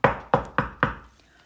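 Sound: knocking on a door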